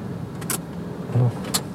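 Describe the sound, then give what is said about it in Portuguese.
A car engine, switched off on a ferry crossing the Xingu River on the way to Anapu, tries to start but fails to catch: a brief low grinding surge over a steady vehicle rumble, with a couple of sharp clicks before and after. No one speaks. “Não tá ligando o carro?”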